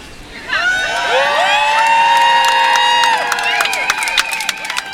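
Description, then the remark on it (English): A large crowd of about 200 sex workers and their allies, gathered under red umbrellas in a small park in Manhattan's West Village across from the Stonewall Inn on a blazing, windy Saturday afternoon, cheers and whoops loudly, many voices rising together for several seconds, with scattered clapping toward the end. “Underneath them were roughly 200 sex workers and their allies who had gathered across the street from the Stonewall Inn”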